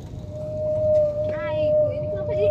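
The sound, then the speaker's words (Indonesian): A car's brakes squeal in a thin, steady whine that holds for a couple of seconds over a low road rumble, with a brief voice cutting in partway through. “pas ngerem ya boy”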